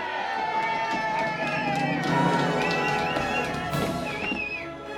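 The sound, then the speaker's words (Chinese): A crowd cheers and shouts together for the new king at a palace banquet, in a steady, dense roar of many overlapping voices, with high calls and whoops rising above it, holding fairly loud for about five seconds. “大家都在为新国王欢呼”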